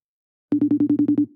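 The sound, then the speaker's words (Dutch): After a brief silence, the ringing tone of an outgoing phone call sounds: a single burst of a steady electronic tone, pulsing rapidly for under a second, clear with no voices. “Oké, nou, laten we hem even gaan bellen.”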